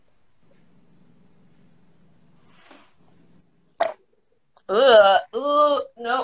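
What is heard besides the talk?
burp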